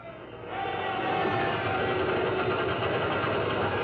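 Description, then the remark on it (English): Mechanical pumps on convoy ships docked at Malta start up to suck oil out of the ships' holds, their noise swelling within the first second into a steady, fairly loud, rapid chugging drone with a faint whine riding on top. “And you hear the pumps get going.”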